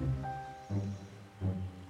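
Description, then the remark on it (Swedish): Low, muffled lake water bubbling in three slow, gurgling swells, fairly quiet and steady between bursts, with no voices. “Men så började vattnet plötsligt att bubbla och det var verkligen inte normalt.”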